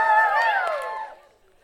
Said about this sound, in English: Can you guys give me a bit of a cheer if that excites you?